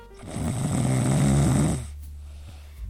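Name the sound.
person snoring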